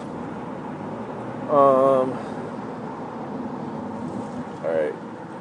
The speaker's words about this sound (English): a little traffic going.